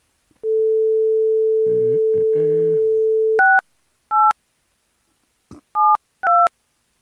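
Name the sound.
phone keypad dialing tones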